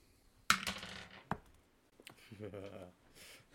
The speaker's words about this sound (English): I would like Cameron, Ashley, and Ben to each roll me a d20.